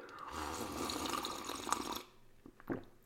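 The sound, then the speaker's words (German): A steady stream of freshly tapped caffeinated apple spritzer pours into a small cup for about two seconds, fizzing and splashing, then stops, followed by a couple of soft clinks or drips. “Das, meine Damen und Herren, Sie ahnen es schon, sage ich Ihnen nach einem frisch gezapften Tässchen koffeinhaltiger Apfelschorle.”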